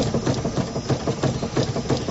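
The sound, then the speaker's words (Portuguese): A noisy car with worn-out suspension rattles and clunks over a steady engine rumble, the knocks repeating in a quick, uneven rhythm at a fairly loud level, with no voices. “Mas que barulheira é essa nesse carro? É, é a suspensão que tá muito ruim.”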